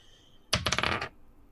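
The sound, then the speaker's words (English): A quick burst of dice clattering and tumbling across a tabletop, several sharp rattling impacts over half a second before settling, rolled for damage in a game. “Roll for damage.”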